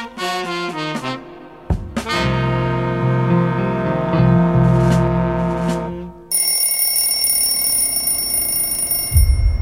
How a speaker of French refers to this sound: Comme un brusque rappel à la réalité, la sonnerie du réveil marque la fin d'une courte nuit et la reprise du rituel.